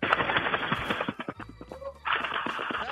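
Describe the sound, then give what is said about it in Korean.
In a radio show's voice-impression contest segment, a voice mimics a flock of pigeons taking off: loud, breathy fluttering bursts of rapid beats that pause briefly, then surge again. It fills the whole clip, with no speech. “그 비둘기 때 날아가는 소리를 간단하게 한번 해보겠요 비둘기 때로 날아가는 소리입니다.”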